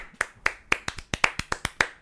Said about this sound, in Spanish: Palmas, señores.